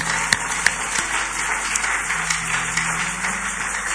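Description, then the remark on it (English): An audience applauding for Jesus: a steady, dense wash of many hands clapping at once, with a few sharper individual claps standing out early on, sustained for the whole stretch with no talking. “Uh, come on, put your hands together for Jesus.”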